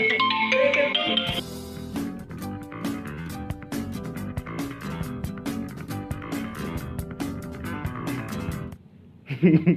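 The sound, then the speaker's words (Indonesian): A mobile phone that is being used to record rings with a loud musical ringtone, a busy melody with a steady beat playing continuously for several seconds before cutting off abruptly near the end. “Masa podcast ada telepon?”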